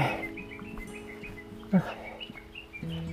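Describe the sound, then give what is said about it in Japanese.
Birds sing with clear, whistle-like calls resembling a bird whistle, repeated tones over a steady outdoor background during a hike, with a brief louder bump partway through. “あ、なんかいい感じの鳥が、鳥笛みたいな感じの鳥が鳴いてますね。”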